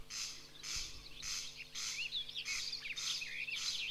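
A corncrake (Crex crex) repeats its rasping call steadily, harsh dry zipper-like bursts in a regular rhythm, fairly faint, with thin chirps from other birds and a wood pigeon in the background, and no talking.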